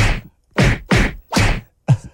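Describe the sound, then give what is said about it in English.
Five loud, sharp slaps land in quick, slightly uneven succession, each a crisp smack with a short ringing tail, and no voices underneath. “and then he said the bear's giving him a few slaps back.”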